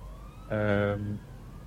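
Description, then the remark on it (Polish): A police vehicle's siren gives a short, loud blare lasting under a second, a steady buzzy horn-like tone, with a fainter rising wail lingering in the background, as many police and military vehicles pass by. “trudno skupić, bo wiecie co, jakby jest mnóstwo policji, wojska, coś, coś dziwnego się, dzieje.”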